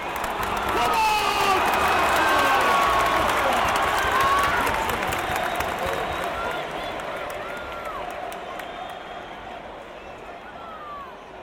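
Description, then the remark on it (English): A big football crowd roars and cheers in a dense, continuous wall of voices with scattered shouts and claps, loud at first and easing slightly toward the end. “Football is a roar. It is chanting and singing, clamour and yelling.”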